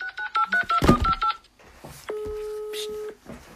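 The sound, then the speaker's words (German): A quick run of about ten telephone keypad tones beeps in a steady rhythm, followed by a single longer tone of about a second, with soft voices murmuring underneath. “Ich rufe an wegen die Mülltrennung.”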